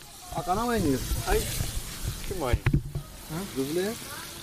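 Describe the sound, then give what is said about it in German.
Steady, broad hiss of a large amount of meat in various forms sizzling with paprika and pumpkin on a mix of pan and kettle over a fire, with brief crackling bursts, while people talk over it. “Schnell wird ein Feuer gemacht und auf einem Mix aus Pfanne und Kessel sehr viel Fleisch in allen möglichen Formen mit Paprika und Kürbis gebrutzelt.”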